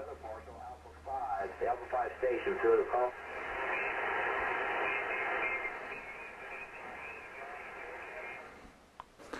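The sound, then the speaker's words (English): A ham radio net on lower sideband: a thin, band-limited voice crackles through static for a few seconds, then gives way to a steady hiss of receiver noise before a click at the end. “And I hear the net going on.”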